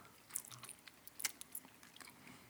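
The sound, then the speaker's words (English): Quiet chewing of Swedish Fish gummy candy, eaten for the first time, with soft wet squishes and a few sharper clicks of the mouth scattered irregularly across a couple of seconds, no talking. “you could see us eating Swedish These fish for the first Swedish time. Swedish fish.”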